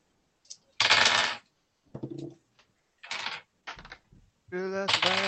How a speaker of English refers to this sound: You know, as much as I, I love hearing the clack clack on the table, I want to get you guys dice trays.